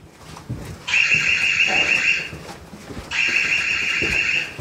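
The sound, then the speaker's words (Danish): A proximity alarm at a museum barrier in a bunker, set off when a hand reaches too far over the barrier, sounds twice: two loud, shrill electronic warbling bursts of about a second and a half each, separated by a short pause, over faint background noise. “Men det er altså noget, hvis du trækker hånden for langt ind over Nå. afspærringerne, så går der sådan en alarm der.”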